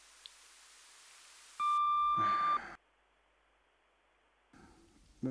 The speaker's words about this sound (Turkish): Lütfen sinyal sesinden sonra mesajınızı bırakın.